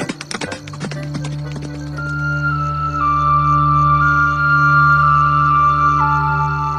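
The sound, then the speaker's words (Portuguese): A quick burst of galloping hoofbeats from two horses heading toward the port clip-clops loudly for about a second, then gives way to a steady, sustained musical drone that carries on to the end. “e aí você galopa, vai. Galope os dois cavalos ali em direção ao porto.”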